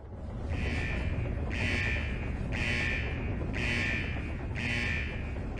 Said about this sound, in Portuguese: Tendo o alarme começado a tocar ensurdecidamente e a mensagem com um tom sério, um tom de aviso.